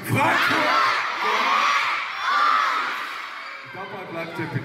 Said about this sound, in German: Schreien so. tausend Kinder aufgestachelt von einem Politiker.